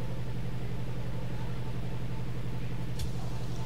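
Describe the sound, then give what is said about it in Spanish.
A steady low mechanical rumble hums throughout, then near the end an automatic train door shuts with a single short, sharp clunk. “La puerta se cierra en automático.”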